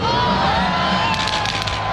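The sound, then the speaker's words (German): A large crowd cheers and shouts continuously at the switch-on of the Lucy Christmas lights on Bahnhofstrasse, a dense roar of many voices with whoops and high children's yells rising above it, loud throughout the two seconds. “Heute Abend wird die Weihnachtsbeleuchtung Lucy an der Bahnhofstrasse angestellt. Das tönt denen so.”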